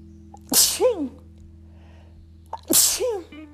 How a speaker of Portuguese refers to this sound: Não vou editar isso. Fique ouvindo meu espirro.